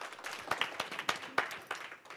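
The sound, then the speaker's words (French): A crowd claps together for a panel of speakers, a dense patter of many hands with a few sharper, louder claps standing out, steady and lively throughout without any voices. “On peut les applaudir.”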